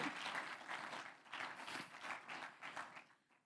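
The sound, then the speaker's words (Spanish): A church audience breaks into sustained applause for the Lord, many hands clapping in a dense, steady wash that holds strong for about three seconds before tapering off at the end. “Denle un aplauso al Señor si usted ha sido sellado con el Espíritu Santo.”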